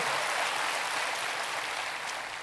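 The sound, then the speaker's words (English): A crowd claps steadily, a dense wash of many hands applauding at an even, fairly loud level throughout, with no voices over it. “Come on, if you believe that, can you clap your hands in here today?”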